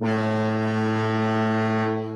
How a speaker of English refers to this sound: You get the foghorn, first foghorn of the day.